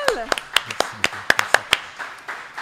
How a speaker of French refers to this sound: Donc, une grosse main d'applaudissements